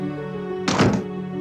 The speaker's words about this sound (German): Etwas knallte gegen die Tür